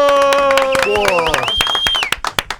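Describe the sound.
A round of applause welcoming a guest who impersonates Tite: many hands clapping in a steady patter, with sustained tonal whoops or voices rising over it, then thinning to a few sharper claps at the end.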